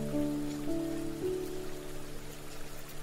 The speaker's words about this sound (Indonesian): backsound di podcast kawan berteduh ada suara rintikan-rintikan hujan